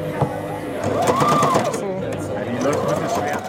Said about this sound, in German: Aber die Nähmaschine ist dann wieder eine Herausforderung.